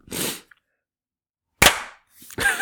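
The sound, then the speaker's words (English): A sharp, loud hand clap cracks out after a stretch of silence, set among a few other brief, noisy bursts; no one speaks. “okay, silence till 45 with the clap.”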